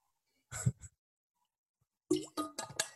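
A short drink of water: a wet plop as lips leave a container, a pause, then a quick series of three or four gulping swallows, with no talking.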